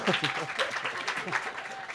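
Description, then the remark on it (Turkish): An audience claps in a steady, dense burst of applause that holds at a fairly even level for the whole stretch, with some voices mixed in underneath. “o zaman evet, arkadaşlar sene- bir alkış alalım lütfen.”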